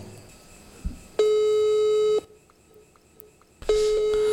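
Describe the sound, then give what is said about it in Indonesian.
Telephone call tones: a steady, mid-pitched electronic tone sounds for about a second, pauses, then starts again, like an unanswered call heard through a phone earpiece. It is a call to a friend's phone number that is not active or not reachable. “Coba aku tak telepon koncoku tak usul iki.”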